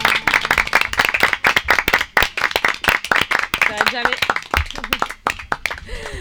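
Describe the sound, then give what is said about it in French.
An audience bursts into sustained applause, many hands clapping in a dense, uneven patter, with a few voices calling out and cheering over it. “Applaudissements.”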